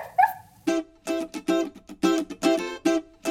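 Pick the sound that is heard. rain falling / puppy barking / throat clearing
puppy barking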